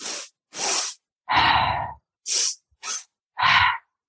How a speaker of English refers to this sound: so your inhale is very active and your exhale is more passive. So that's why we sound like